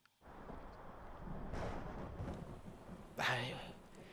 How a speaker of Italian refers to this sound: Cioè, oh, ragazzino, tu che vedi questa cosa con i tuoni, la rupe, la pioggia, e poi vedi questo umanoide che si arrampica. Mamma mia, la, la melodia!